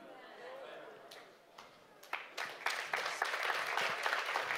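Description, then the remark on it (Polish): An audience breaks into applause: a few scattered claps at first, then many hands joining into a dense, steady burst of clapping that keeps building toward the end. “Chyba dzisiaj 60 przerw na brawa będzie.”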